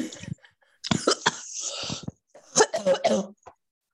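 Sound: choking and coughing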